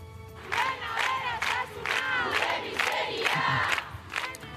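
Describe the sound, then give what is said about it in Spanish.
Feminist groups rally outside Centro A, protesting a congress on surrogacy. The crowd chants in unison, voices rising in repeated rhythmic bursts roughly every half second to a second, loud and sustained throughout with a dense murmur of many people underneath. “En el exterior de Centro A se concentraron ayer colectivos feministas con mensajes como vuestras riquezas, nuestras miserias y criticando la utilización de ese espacio.”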